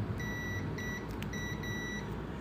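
A multimeter set to continuity test beeps as its two test probes are joined together: a steady high-pitched tone in four short bursts separated by brief gaps, over a constant low hum with no talking.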